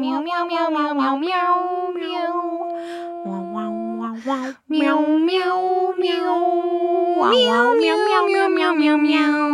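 A cat meows loudly and almost without pause, a string of drawn-out, rising and falling cries, with a brief break midway before the insistent yowling resumes.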